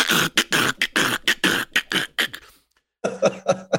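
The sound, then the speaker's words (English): A voice imitates the rattling, clattering motorized seatbelts of a new two-door car as its door is shut, with quick, rhythmic bursts, about a dozen in a row, then a short pause and another burst of shaky rattles, loud. “and and it makes this rattling and shaking and banging. It sounds like you threw a wheelchair down the stairs.”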